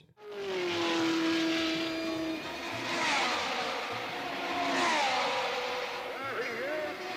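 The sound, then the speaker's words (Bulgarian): Jim Clark's rear-engined Lotus 38 racing car roars loudly past at speed as it crosses the finish line to win the 1965 Indianapolis 500, its high whine rising and falling as it goes by, with a busy wash of track and crowd noise underneath. “Jenny Clark crosses the finish line to become the victor of the 1965 Indianapolis 500.”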